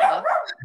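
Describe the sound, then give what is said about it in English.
A single short dog bark, fairly loud, with a brief yelping edge as it trails off. “Sorry about the dog.”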